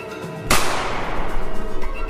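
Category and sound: sound effect, rifle gunshot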